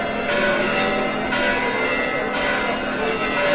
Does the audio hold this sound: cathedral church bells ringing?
yes